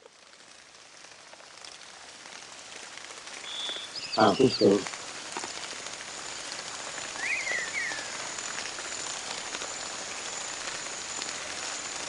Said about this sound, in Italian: Mm, insomma c'è la pioggia che può distrarre un po'.